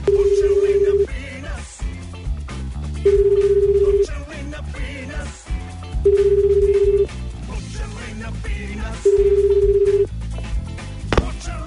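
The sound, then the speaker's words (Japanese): An unannounced phone call placed from a radio show to a grand prize winner: the line rings four times with a steady one-second ringback tone every three seconds, heard over background music with no one answering yet. “えー、恒例のアポなしですけれども電話つながりますかね、えー、電話をつないでみたいと思います”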